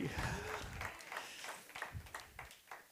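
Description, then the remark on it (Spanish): An audience claps together for Christ in a steady, dense burst of applause. Crisp overlapping hand claps pulse rhythmically for a few seconds, with a low murmur of voices underneath at the start. “Dele fuerte el aplauso a Cristo.”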